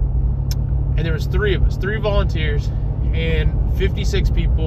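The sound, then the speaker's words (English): A steady, deep engine rumble drones inside a truck's cabin while it is being driven, from start to finish, sitting beneath a man's continuous speech. “I'm in the truck right now, so you might hear some some some truck noises”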